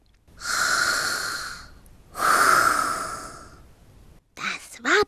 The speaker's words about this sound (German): Im kleinen Hundehäuschen war es mucksmäuschenstill. Nur hin und wieder war ein tiefes Atmen zu hören.